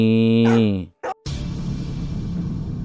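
A dog gives one loud, drawn-out bark, almost howl-like, barking up toward a car at night, then a brief clatter before a steady rushing background noise takes over.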